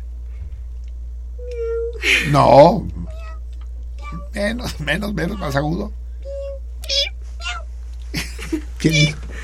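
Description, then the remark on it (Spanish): A person imitates a cat's meow several times, with rising, squeaky cries, trying a higher pitch as another voice coaches between attempts. Clear, with a steady low hum underneath. “La misma noche que lo trajimos a la casa, empezó a maullar así, como usted sabe, usted puede hacerlo, yo no. como cómo maullar?”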